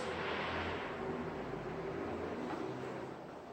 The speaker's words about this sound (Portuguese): Pausa para o ônibus